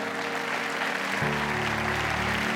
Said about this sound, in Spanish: Vamos a celebrar al Rey de Reyes, al Señor de Señores. Dale un aplauso grande al rey. Dale, dale ese aplauso al rey de reyes y que ese aplauso se escuche como el símbolo.